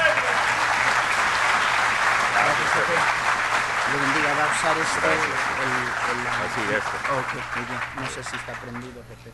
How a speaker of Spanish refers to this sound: Vamos a recibirle con un fuerte aplauso, hermanos, esta noche.